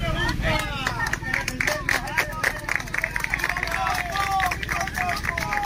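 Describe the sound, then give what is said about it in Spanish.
An outdoor crowd of farmers in Salamanca applauding Queen Letizia as she greets them from her car, dense overlapping claps mixed with cheering voices and chatter, loud throughout. “Una de las imágenes de las últimas horas ha tenido como protagonista a la reina Leticia saludando desde el coche a un grupo de agricultores en Salamanca que respondían con un gran aplauso.”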